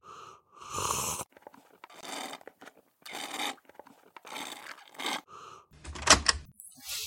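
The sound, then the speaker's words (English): Sipping of coffee: a series of airy slurps and breathy draws separated by short pauses, with a sharper, louder slurp near the end. No one speaks. “Instead of doing that, stay here and listen to me sipping coffee for the next five minutes.”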